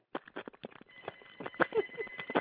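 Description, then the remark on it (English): A voice imitates fast phone texting with a rapid, uneven burst of sharp mouth clicks and tongue pops, close and fairly loud, rattling on for a couple of seconds without words. “I mean, that's what it sounds like when she texted. Like somebody just a cat is like licking milk or something.”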